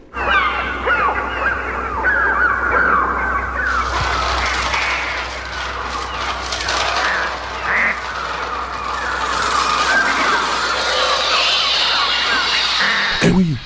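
A dense, continuous barrage of shrill electronic bird cries made on a Mixture Trautonium as film sound effects, squawking and overlapping like a frenzied flock, loud and unbroken, with a low steady hum underneath and a sharp burst near the end.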